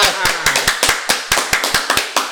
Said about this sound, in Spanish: pinche aplauso.